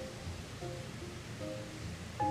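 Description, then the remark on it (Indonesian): Steady rain falls in a continuous, even hiss that fills the background at moderate volume, with a few faint tonal chirps drifting through near the end. “momen awalnya bangun tidur kah mau tidur kah atau kayak lagi hujan gini”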